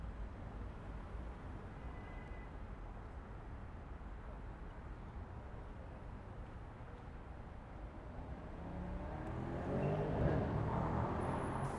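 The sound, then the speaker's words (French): A red Mercedes approaches from the south along a city street at night over steady street rumble, its engine growing louder and revving hard as it passes by near the end, then beginning to fade. “Une Mercedes rouge vient du sud et passe en s'en vomir son moteur.”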